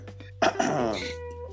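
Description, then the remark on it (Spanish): A squirrel monkey gives a brief, squeaky call, a single whiny, chirping cry that rises and falls in pitch, fairly loud over a low steady hum. “Es el mono ardilla.”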